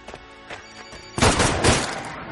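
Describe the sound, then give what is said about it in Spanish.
Sudden loud burst of gunfire erupts after a quieter stretch of tonal background, with broad crackling blasts in quick succession that linger and decay, harsh, as two men arriving in a jeep shoot at a mobile phone lying on the ground. “Dos árabes llegan a un jeep y disparan al teléfono.”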